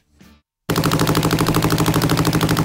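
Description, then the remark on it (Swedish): A short faint rumble, a brief pause, then a Top Fuel dragster motorcycle engine, running on nitromethane rather than regular petrol and reaching 0-100 in 0.8 seconds, fires up: a deafening, rapid staccato roar of pulsing explosions, relentless, sounding almost like machine-gun fire. “En dragster-motorcykel, 0-100 på 0,8 sekunder”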